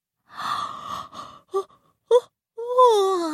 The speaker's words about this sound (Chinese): 哇！小猪们打着大大的哈欠爬了起来。